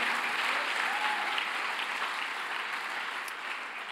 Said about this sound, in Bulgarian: О, ако ръкопляскаш, ръкопляскай, като че наистина вярваш. Още не съм свършил. Ръкопляскай, като че наистина вярваш.